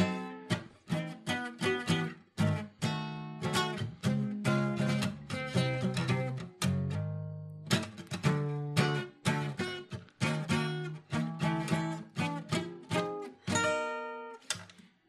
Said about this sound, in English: That's Thomas the Tank Engine, if case you were wondering what that noise was.